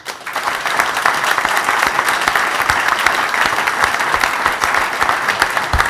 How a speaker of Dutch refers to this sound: Ik weet nu even niet waar je bent, maar ik denk dat we allemaal wel even mogen klappen voor iedereen hier.